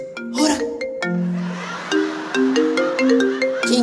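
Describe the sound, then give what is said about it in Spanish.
A mobile phone ringtone plays a bright, bouncy melody of stepped electronic tones with sharp percussive clicks, fairly loud, with no one speaking over it. “Y como tienes sentada a tu esposa aquí, dice, está sonando tu teléfono.”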